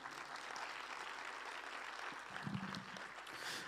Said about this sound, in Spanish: Un, aplauso para ellos.